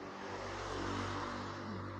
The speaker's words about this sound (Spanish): Finches motos, neta. Cosas de vivir en Chimalhuacán. Linda de motos.